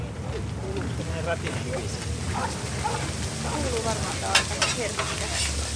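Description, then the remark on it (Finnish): Small vendace fish sizzle steadily in butter in a pan at a market stall at the Malmi market, a constant crackling hiss with a brief scrape of stirring, while voices talk underneath. “Paistettuna se on rapea, eikä siitä osaa sanoa kumpi on maukkaampaa, pää vai pyrstö.”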